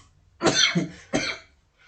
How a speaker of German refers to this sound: Raucherhusten.